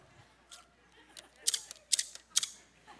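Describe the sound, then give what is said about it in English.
Shears snip several times in quick succession, crisp metallic clicks that start light and grow sharper and louder toward the end. “hand me my shears real quick for me”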